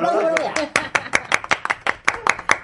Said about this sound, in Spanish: Chan, chan, chan, chan. Un aplauso